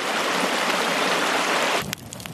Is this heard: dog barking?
no